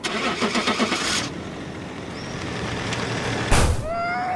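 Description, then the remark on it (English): A car engine cranks with rapid rhythmic pulses, catches and settles into a low, steady rumble, then gives a brief loud surge followed by a rising whine as the car runs over a small boy again in a driveway. No one speaks. “I mean, help me nourish him like a little baby bird, not run him over again!”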